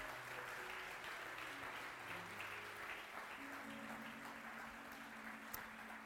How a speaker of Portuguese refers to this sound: Aplauda mais uma vez a ele, glória a Deus por isso.